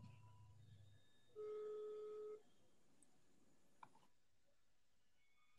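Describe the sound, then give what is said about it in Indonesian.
A single steady electronic ringback tone from an outgoing phone call, placed as a quick missed call, sounds for about a second, clear and even, then stops, leaving a quiet background with a faint click. “Berdering masuk-masuk.”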